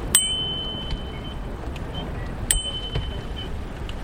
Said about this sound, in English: A bicycle needs a bell to warn others on the road because it's so quiet